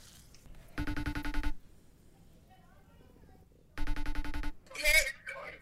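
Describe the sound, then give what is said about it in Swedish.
Two rings of an outgoing phone call's ringback tone, each about a second long with a gap of silence between them, followed by a brief burst of a voice at the end. “Jag ringde, sa till.”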